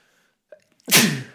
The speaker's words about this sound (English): I did another sneeze